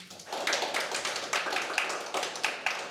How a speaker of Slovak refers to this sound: Potlesk poprosím.